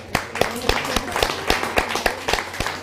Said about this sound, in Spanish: Otro fuerte aplauso.